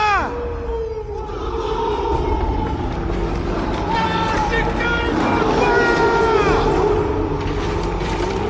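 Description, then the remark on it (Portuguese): A voice imitates a Volkswagen Beetle engine, a loud, steady buzzing drone with wavering pitch that glides up and down over a constant rumbling noise, continuing for several seconds. “ele fala claramente em português, o editor vai botar aí, porque ele fala: é assim que meu Fusca anda e é assim que ele vai parar.”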